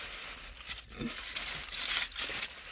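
Crinkly rustling of aluminium foil around a flatbread roll with sausage and mash being eaten, a continuous run of sharp, papery crackles that swell and fade over a few seconds with no voices.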